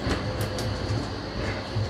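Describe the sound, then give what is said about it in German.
A tram rumbles steadily past on a Friday night, a continuous low mechanical drone with faint rail hiss, heard through an open window with no one speaking. “Hey, Straßenbahn, U-Boot.”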